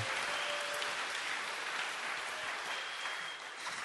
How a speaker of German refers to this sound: Und jetzt dürft ihr ihnen einen fetten Applaus geben, dass sie sich so richtig wohl und daheim fühlen.